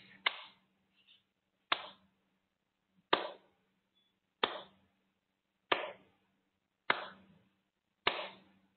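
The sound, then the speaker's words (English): Slow hand clapping by one person as a cue for listeners to open their eyes, seven sharp claps at a steady, unhurried pace about one and a half seconds apart, each crisp and bright with a short decay, alone with no voices. “It is me applauding.”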